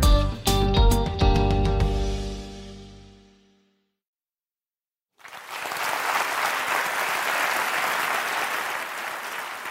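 A few struck musical notes ring out and fade into a short silence, then a large audience breaks into loud, steady applause that continues without letup to the end.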